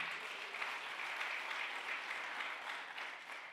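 A large audience claps loudly and steadily, a dense, continuous wash of applause that holds at an even level for several seconds with no voices standing out.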